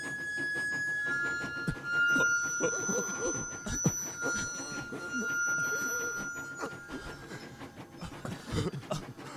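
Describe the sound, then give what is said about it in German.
A steady rumble of a train interior rolling along rails, with a thin constant whine riding above it and indistinct voices murmuring underneath throughout. “Der Zug gleicht einem riesigen Wartesaal.”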